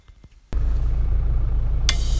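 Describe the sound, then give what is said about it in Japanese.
After a moment of near-silence, a car engine suddenly kicks in and keeps running with a steady, low rumble. A brief hissy burst cuts through near the end. No one speaks. “この車もそろそろ買い替えたいな”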